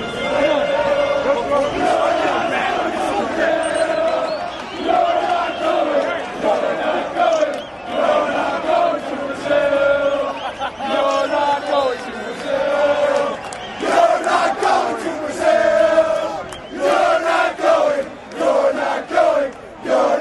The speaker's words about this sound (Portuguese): Sem escalas, vamos ouvir a provocação da torcida americana.